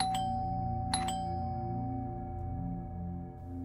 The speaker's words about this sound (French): La caméra a fait un travelling vers le haut et j'ai vu la personne lever un doigt ganté de noir pour appuyer sur une sonnette.